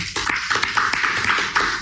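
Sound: hand clapping applause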